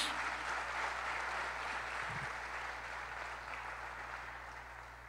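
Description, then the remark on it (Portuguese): A church audience applauds the name of the Lord steadily, a dense, even wash of clapping hands that holds for several seconds and slowly tapers off, with no voices over it. “Aplauda o nome do Senhor, amados.”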